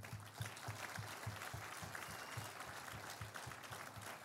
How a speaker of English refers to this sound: Hallelujah. Let us clap hands for God.